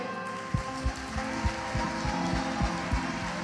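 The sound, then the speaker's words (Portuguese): A crowd claps with hands raised above their heads in praise of God as king, a dense, steady wash with soft rhythmic thumps beating roughly three times a second underneath. There are no voices. “Porque rei nós aplaudimos assim, acima da cabeça.”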